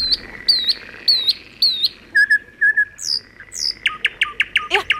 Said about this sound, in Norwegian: Ja, hva er det vet jeg, for det er en nattergal. Ja! Man tror at den synger så vakkert, Mm, men så gjør den ikke det. Nei, det ikke sant? Det er bare veldig mye virvar.